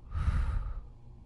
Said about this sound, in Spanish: Volvemos a respirar profundo. Y en este respiro vamos a sacar lo que no hemos querido ver pero que sabemos que está ahí